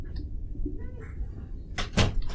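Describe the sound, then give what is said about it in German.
A door swings shut near the end, landing as a quick cluster of sharp knocks and a solid thud against a low, quiet background rumble. “Warte, mach mal die Tür zu”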